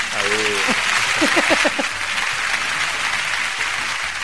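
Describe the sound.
Sustained applause from a studio audience, a dense, steady clatter of clapping that fills the whole stretch, with a few voices calling out near the start.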